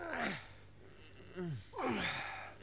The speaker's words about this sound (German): Das äh, schwere Atmen dieser Männer entspringt keinerlei jugendgefährdenden Motiven. Im Gegenteil, hier wird hart gearbeitet. Hau! Ruck! Hau! Ruck! Hau! Das sind die Möbelpacker.